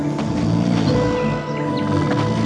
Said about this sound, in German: hört sich fast so an, als würden die Bäume schnarchen.